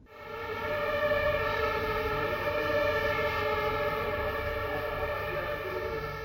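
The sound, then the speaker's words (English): A loud, sustained fire truck siren wails steadily as the fire truck drives out of the firehouse carrying firefighters, its layered tones holding at a near-constant pitch throughout, with a low rumble of engine noise underneath and no voices. “They turn on the sirens and everyone gets out of their way.”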